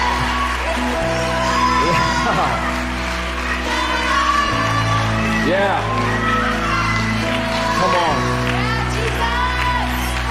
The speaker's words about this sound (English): Listen, let's give the Lord a hand clap before we go. Come on, God. You're so good. Come on, you can do better than that.